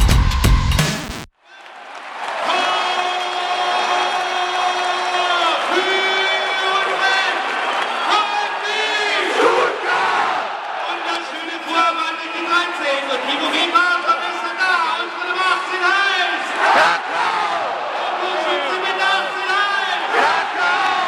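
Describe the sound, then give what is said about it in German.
A huge stadium crowd at a VfB Stuttgart Champions League round-of-16 first-leg match against FC Barcelona, which ended 1–1, roars and chants together in unison, loud and sustained for about twenty seconds, with voices swelling in rhythmic waves after a brief burst of noise at the start. “Was ihr gerade gehört habt, das war ein Live-Sound von einem der legendärsten VfB-Spiele in der Geschichte.”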